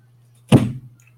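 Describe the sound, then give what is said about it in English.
The detached top of a chair slides off its base with one short, heavy clunk, fairly loud, fading quickly over a steady low hum with no talking. “This chair, the top is detached from the actual chair, so sometimes it slides over.”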